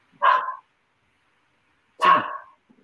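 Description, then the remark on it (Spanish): A dog that was taken out for a walk and seems to have got loose barks twice out on the street, two sharp separate woofs about two seconds apart, with silence between them and no talking. “Sí, en la calle está como ladrando, no sé qué onda.”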